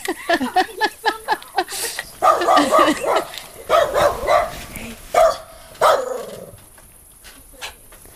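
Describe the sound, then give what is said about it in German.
A dog barks at a fox repeatedly in loud bursts, starting with quick sharp yips and then breaking into heavier barks with pauses between them, trailing off into quieter sounds. “Du hast zwei Knochen bekommen. Ich weiß, ich finde das gut, dass du uns beschützen willst. Aber jetzt ist gut, ja?”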